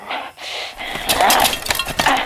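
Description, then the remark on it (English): A hammer smashing cassette tapes: a quick run of loud, sharp cracking blows with brittle plastic crunching and clinking, the hits coming irregularly after a brief quieter start. “Yeah, get some tapes. Smash them up.”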